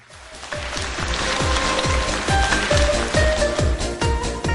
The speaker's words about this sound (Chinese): 听懂的，再次掌声鼓励一下。